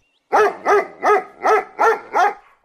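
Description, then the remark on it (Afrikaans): A dog barks six times in a steady, even rhythm, each bark loud and close with a slightly yelping, harmonic tone, and no voices around it. “Ek lê te lekker in die son maak die groot lui hond verskoning.”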